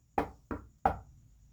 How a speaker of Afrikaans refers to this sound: Op na die trappietjies waar 'n goue deur. Hy stap tot by die deur en hy klop.